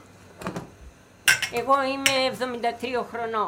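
Dishes and cutlery clink softly in a kitchen as lunch of braised vegetables and goat liver is prepared, a few light knocks and rattles at first, then sharper clatters continue under a voice that starts talking and carries on over them.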